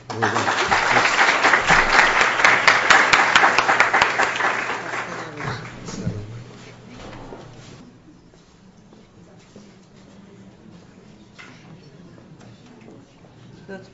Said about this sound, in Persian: لطفا تشویق بفرمایید